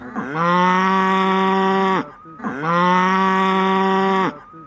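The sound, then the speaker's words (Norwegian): A cow in the barn of a dairy farm, kept together with her calf, moos twice calling for her calf, in long, loud, steady calls, each lasting close to two seconds with a rich harmonic tone, separated by a brief pause. No one speaks. “Ja, nå roper hun på kalven.”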